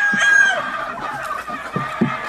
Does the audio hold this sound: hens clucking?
yes